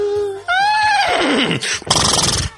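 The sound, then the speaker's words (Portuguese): A person does a loud, convincing vocal imitation of a horse's whinny: a rising, quavering neigh that slides downward, then ends in a rough, breathy snort. “Essa eu duvido, cara. Um cavalo.”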